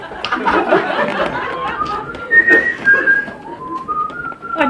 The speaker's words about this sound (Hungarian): Valaki fütyüli.